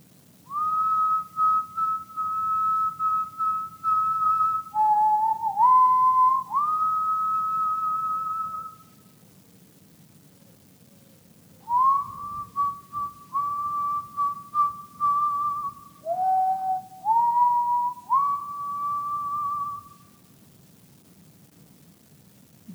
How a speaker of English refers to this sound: And as you're all stood there with everybody kind of looking at each other, you hear out of the fog somebody whistling.